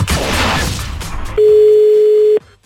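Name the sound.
telephone dial tone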